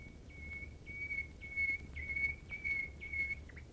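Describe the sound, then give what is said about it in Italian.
A nightingale sings a run of about six clear, whistled notes at a steady high pitch, repeated in an even rhythm over a faint low hum. “L'Usignolo”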